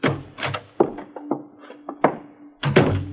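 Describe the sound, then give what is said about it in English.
The door of a small lighted shop on a narrow, dark street being opened: a quick run of sharp clicks, knocks and thumps from the latch and frame, over a faint steady hum, with no one talking. “Just open the door, Ulysses.”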